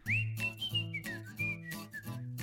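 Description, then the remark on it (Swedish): A short whistled jingle for 'Svenssons snack', a bright melodic line gliding up and down over a steady, rhythmic backing with repeating low notes, clear with no talking. “ja, men då, då kommer en jingel på det här nu.”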